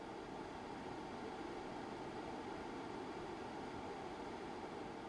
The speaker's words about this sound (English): So I will take off my headphones. And right now, it's kind of silent. And I'm very lucky because there is a construction site right next uh, next door. So I'm very happy. I can only hear my computer fan.